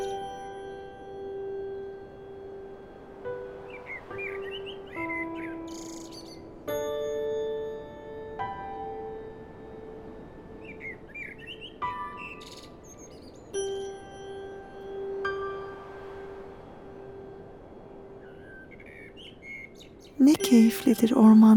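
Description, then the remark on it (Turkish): Small bursts of birds chirping recur every few seconds, fairly faint, over a soft sustained musical drone with chime-like tones, ending in a brief louder clatter. “yemyeşil ağaçların altında kuş cıvıltılarıyla beraber oyunlar oynadığımızı hayal et.”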